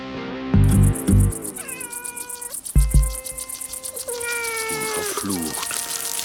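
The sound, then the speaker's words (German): A kitten meows several times in a row, high drawn-out cries that rise and fall, with a few low muffled thumps early on and a steady faint hiss underneath. “Singen Sie jetzt jeden Tag an meinem Kätzchen rum?”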